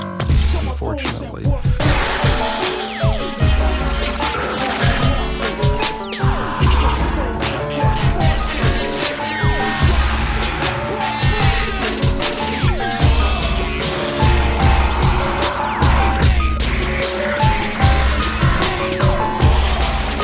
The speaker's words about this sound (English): The question is lost in the sound of the explosion.